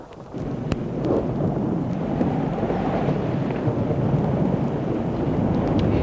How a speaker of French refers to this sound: Un orage violent, comme on en voit en montagne.